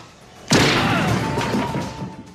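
A single loud gunshot in a film scene, a man shot in the head, goes off after a brief quiet moment, its sharp crack trailing into a long, ringing echo that slowly fades. No one speaks.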